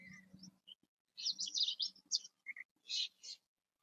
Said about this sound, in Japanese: このなんかサマディから流れている音楽も聞こえるのかな鳥の声の方が聞こえるのかなどのくらい音を拾ってるんだろう